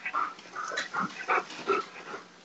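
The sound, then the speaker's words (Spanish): Dogs yelp and whine playfully in a quick series of short, excited vocalizations, with no talking over them; the speaker's dogs, behind the speaker, want to play. “Perdonen ustedes, es que mis perros les dio porque en este momento quieren jugar. Atrás de mí, además.”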